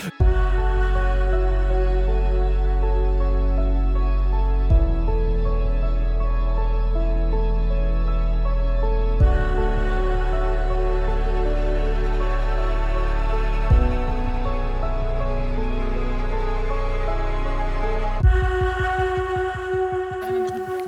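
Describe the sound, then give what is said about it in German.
A loud, steady car engine drone runs continuously during an engine test, its pitch and tone shifting abruptly every few seconds. No one speaks over it. “Ja, das, der Motor ist an”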